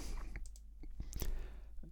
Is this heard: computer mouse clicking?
yes